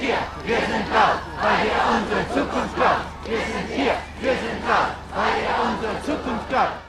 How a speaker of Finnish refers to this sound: Olemme täällä, olemme äänekkäitä, koska te varastatte tulevaisuutemme, nuoret huutavat.